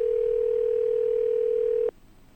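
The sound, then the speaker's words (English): A single steady electronic telephone ring tone plays over the line as a radio show calls a guest for an interview, lasting about two seconds, then cuts off abruptly, leaving faint line hiss. No one speaks. “We'll see if Michael picks the phone up.”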